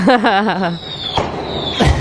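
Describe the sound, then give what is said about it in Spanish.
Two sharp, booming firework bursts set off in Calle Angosta echo through the street about half a second apart, with a thin high whistle lingering between them, after a brief voice at the start. “Eh, sos jugador de un equipo argentino antes de jugar por Libertadores en Sao Paulo y pusieron eh, cuando tiraban fuegos artificiales en la calle Angosta donde estaba Cristina.”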